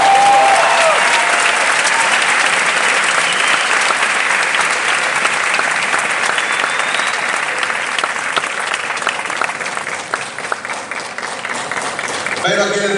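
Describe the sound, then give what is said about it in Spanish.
Sustained audience applause, a dense wash of many hands clapping loudly and steadily for about thirteen seconds, with a few brief tones and voices faintly mixed in. “Un aplauso para”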